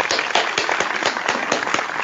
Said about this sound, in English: Welcome. that was light applause. Gay, uh, thank you? you? so much. That was that was such a warm-hearted, spontaneous round of applause.